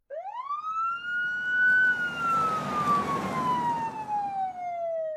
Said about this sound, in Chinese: 听，这是什么声音啊？原来啊，是一辆警车驶过。